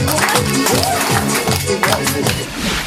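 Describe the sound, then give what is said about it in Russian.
An audience claps together for the people who guessed a riddle's answer (cabbage) at an autumn and harvest event held in Russian folk style: a loud, steady burst of applause, sharp claps landing in a rough rhythm, voices mixed in underneath throughout. “Аплодисменты знатокам! Да погромче, погромче!”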